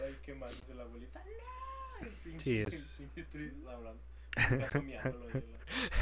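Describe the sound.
A person imitates a cat, giving a few drawn-out meows that rise and fall in pitch, followed by laughter and chatter from other voices.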